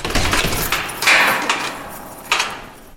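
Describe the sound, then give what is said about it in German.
A heavy metal prison door in Kassel being opened mechanically by hand rather than electronically, with sharp clanks and a grinding scrape, then another loud clunk near the end. No voices. “In Kassel müssen die Türen mechanisch geöffnet werden.”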